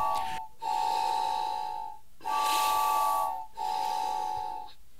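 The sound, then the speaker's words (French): Breathy air rushes through a wind instrument that is not being played, just ventilated, in three long pulses separated by short gaps, a steady hiss carrying a faint, thin whistling tone but no played notes. “Et donc là, l'instrument ne joue pas, c'est juste la ventilation de l'instrument.”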